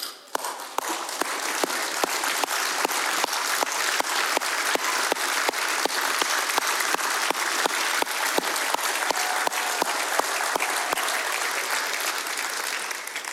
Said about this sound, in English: So, as your pastor and as the congregation of this church, we want to honor all of you today. So, every mom, will you please stand to your feet so we can give you a round of applause?